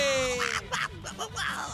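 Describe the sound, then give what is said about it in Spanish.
A woman lets out excited, nasal squealing cries that sound like Donald Duck quacking, several quick, fairly loud bursts after winning a radio roulette prize, with background noise underneath. “Hola, le hizo como el pato Donald, señora, ¿todo bien?”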